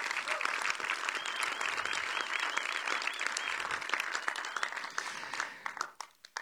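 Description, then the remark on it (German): A church audience applauds the church's staff and helpers, a dense wash of many hands clapping that holds strong for several seconds before thinning out and tapering into scattered claps at the end. “Wenn, ja, gebt mal einen Applaus.”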